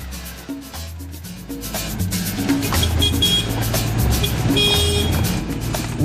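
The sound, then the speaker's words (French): A Citroën 2CV drives along a road through small villages in the Somme, France, near Amiens, its engine droning steadily, the rumble rising slightly in pitch as it picks up speed, with a horn toot and road noise throughout and no voices. “grâce à cette deux chevaux, on est partout dans la région”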